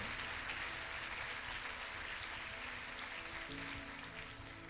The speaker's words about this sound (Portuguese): Quer aplaudir? Aplauda sim a palavra do Senhor.